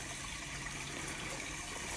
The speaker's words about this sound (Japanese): で、2個目がすげえ水流れてんな。なんか、なんだこれ川かまあ、山ん中なんでしょうがないですけど。